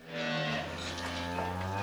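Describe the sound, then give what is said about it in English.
A cow on a dairy farm in Connecticut gives one long, sustained moo, loud, with a deep harmonic drone that shifts pitch slightly midway before holding steady to the end. “a dairy farmer from Connecticut and he's going to walk us through the modern process of getting milk from cows.”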